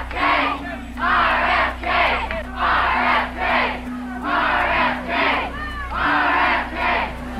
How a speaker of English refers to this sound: You can hear the supporters packing the room, despite the hour and the sweltering heat.